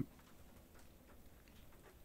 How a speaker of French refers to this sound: Mais encore une fois, je regarde parce que j'entends la pluie qui tombe.